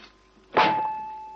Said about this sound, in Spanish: Quita el cerrojo de la puerta y abre.